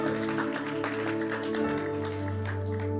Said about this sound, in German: ja, lass uns immer einen Applaus geben.